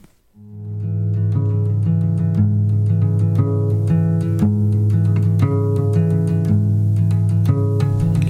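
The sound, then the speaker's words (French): Instrumental music from an album track, with a steady, droning low chord underneath and regular bright percussive hits on top, fading in quickly and then holding a full, loud level with no singing yet. “on va s'écouter …, un petit extrait de …”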